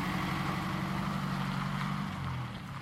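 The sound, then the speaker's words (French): A mini excavator's diesel engine drones steadily, a loud, continuous low rumble with a slight dip in level near the end and no one speaking, as the machine is driven fast to pack, push and stack scrap at a scrapyard. “Le patron s'est aménagé des passages à l'intérieur de son fatra, à travers lesquels il roule aux manettes de sa mini-pelle à toute berzingue, pour tasser, pousser, ranger sa cam.”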